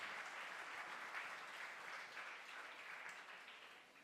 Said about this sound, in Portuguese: E assim, a partir de domingo que vem, pode aplaudir o Senhor. É para a honra e glória do nome do Senhor.